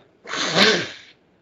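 A single loud, breathy nose blow lasting just under a second, a rough hissing burst that swells to a peak midway and then tapers off, with no talking around it.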